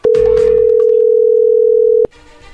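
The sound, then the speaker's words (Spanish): A phone's ringback tone while calling: one loud, steady, mid-pitched electronic tone held for about two seconds, then cut off abruptly, leaving only a faint murmur. “Perfecto, vamos a llamarle, no haga ruido.”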